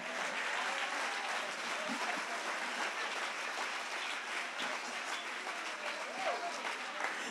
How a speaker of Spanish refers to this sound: Si tú quieres aplaudir, tú aplaudes.